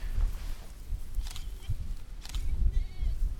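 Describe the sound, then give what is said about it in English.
A few short bleats from a mixture of billy goats and uncastrated ram lambs, kept isolated from the females, rise over heavy low wind rumble and handling noise, spaced out across a few seconds. “over here we've got a mixture of uh, billy goats and uh, ram lambs trying to keep the guys isolated so they're not chasing the females all over the place when they get big and ornery because we don't we don't castrate them”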